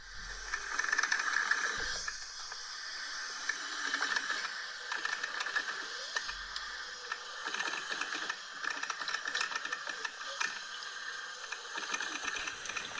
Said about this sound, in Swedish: Jag tror att jag behöver en extra kopp kaffe inför det här mycket svårare exemplet. Jag sätter på min kaffebryggare. Hör!